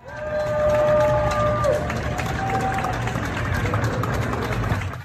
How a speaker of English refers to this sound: But despite all that, in New York City, every night now at 7 p.m., just like they did in Italy, we cheer our healthcare workers and our doctors and our nurses and our EMTs.